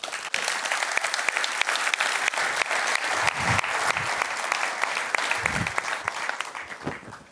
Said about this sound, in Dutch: Mag een groot applaus voor Wim Masker.